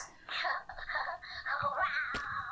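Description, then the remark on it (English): A person's voice imitates a big cat's meow with a long, wavering, wailing tone that rises and falls for about two seconds, fairly loud, with a sharp click near the end. “is just like making like vague meowing sounds”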